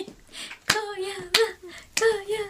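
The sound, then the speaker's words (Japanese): Three sharp, evenly spaced keyboard clicks ring out as a teacher types, like slow deliberate keystrokes, while a sustained voice hums or talks steadily underneath. “OK 処理しましたしばし先生のタイピング音をお楽しみください、はい、しばしタイピング音ね、はい、はい、僕のタイピングをもっと聞きたい”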